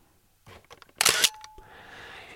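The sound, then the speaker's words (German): The shutter of a modern, plastic-bodied analog film SLR camera with film loaded is released: a few soft mechanical clicks, a sharp loud clack, then a brief whirring, buzzing mechanism that trails off into a faint hiss. No one speaks. “Die analoge braucht ein bisschen länger. Der Sound hinter dem Auslösen ist ein bisschen länger.”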